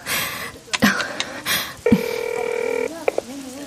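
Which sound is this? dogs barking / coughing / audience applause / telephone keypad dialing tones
telephone keypad dialing tones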